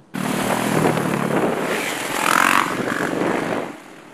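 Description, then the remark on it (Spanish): Motorcycle engines roar to life and rev loudly at Residencia Manuela Pérez in Puerto Rico, a dense continuous rumble that swells in pitch around the middle before easing off near the end. No talking. “Motoras arrancando.”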